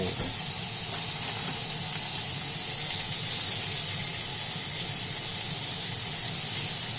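Chicken sizzles steadily in a frying pan, a dense, even crackle and hiss that holds at a constant level throughout with no talking.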